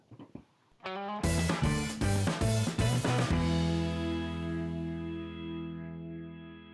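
A loud, distorted electric guitar plays a short, punchy riff of chunky power chords, then lets the final chord ring out and slowly fade with a buzzy, saturated sustain.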